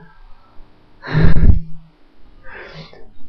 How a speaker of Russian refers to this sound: Можно даже другого заставить зевать. Если кто-то зевнул, это очень заразно, заметили? Почему так происходит?